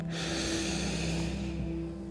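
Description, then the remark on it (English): A slow, deep breath drawn in through the nose and then released out through the mouth, fairly loud, with a steady airy rush and no talking, during a guided relaxation breathing exercise with eyes closed. “Imagine cool, clean air in both nostrils and letting it all go in a gray vapor. One more time, nice and deep.”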